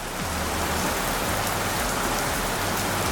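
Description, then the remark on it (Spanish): Steady freezing rain pours down in the province of Albacete in a dense, continuous hiss of countless drops striking a surface, fairly loud, with no voices and no break for the whole stretch. “En la provincia de Albacete, un tren sufrió los estragos no de la nieve, sino del fenómeno conocido como lluvia engelante o lluvia gélida.”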